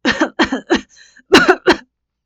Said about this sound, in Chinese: 正在喝柠檬水的韩品如立刻呛了一下，连连咳嗽起来。